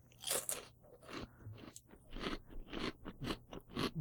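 Close-up crunching of crisp food being chewed, a steady run of sharp, bright bites and grinding chews right at the microphone, with no voices.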